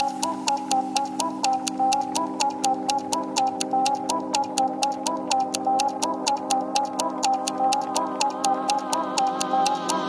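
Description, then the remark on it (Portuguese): A clock ticks steadily and crisply, about three ticks a second, clear, over a sustained tonal hum with a faintly shifting melody underneath. No one speaks. “Nesse tic-tac, tic-tac no relógio bate, já bateu?”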